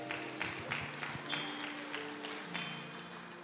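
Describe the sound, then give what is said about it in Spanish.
Scattered, sparse clapping from a few church members, irregular and not very loud, fading out as a steady sustained tone hums in the background. “Por ahí unos hermanos aplaudieron y como que los dejaron solos.”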